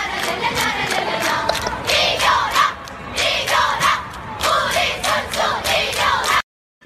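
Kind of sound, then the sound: crowd, audience applause and cheering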